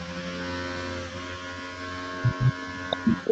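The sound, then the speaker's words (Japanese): Construction work inside a home where window sashes are being replaced: a steady, droning machine hum runs throughout, and a few dull, heavy thuds land near the end. No one speaks. “いや、うるさい。ん右反りいや、我が家は工事をはしてるんです。”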